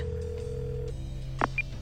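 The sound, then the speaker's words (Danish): A steady telephone tone hums on the line, followed by two short electronic dialing beeps near the end, clear, with no one speaking, as a woman dials a call to someone's workplace. “Nogle gange ringer hun til folks arbejde og lader som om, hun ringer fra et forsikringsselskab.”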